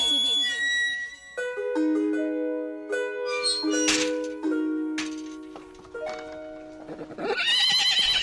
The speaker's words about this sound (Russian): Кони ржали и храпели, очи яком там горели, мелкие кольца завитой хвост струился золотой – и алмазные копыты крупным жемчугом обиты.